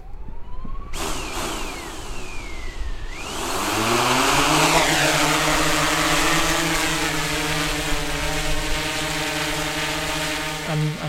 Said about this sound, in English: So my latest um, toy, so to speak, is uh, I found uh, flying a drone.